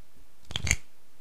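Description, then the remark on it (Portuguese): A short, papery flick of tarot cards being drawn from a deck for a reading, a single burst of shuffling and snapping lasting under half a second, fairly quiet, with no voices. “Nós iremos tirar uma carta dos arcanos maiores e outras três cartas do baralho completo.”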